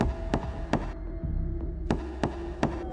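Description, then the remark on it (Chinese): Sharp knocking on a door coming from a long corridor on a quiet night, two raps, a short pause, then three more, each crisp and solid over a low, steady background hum with no voices. “是的，从长廊那里传出了敲门声。”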